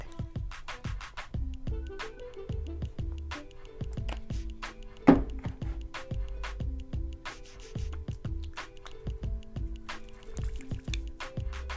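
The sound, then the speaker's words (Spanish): Steady wet squelching and dripping as a little water is worked into a thick, restructuring, non-moisturizing shampoo formula, the rhythmic squishes repeating for several seconds with no voices. “Miren poco de agua.”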